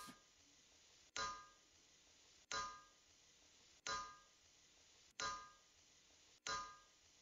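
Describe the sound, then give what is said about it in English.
A hammer strikes metal about five times at a slow, steady pace, each loud ringing clang decaying before the next blow. No voices are present. “Is there anything here in this verse that stands out to you about how the lampstand is made, it's a hammered work.”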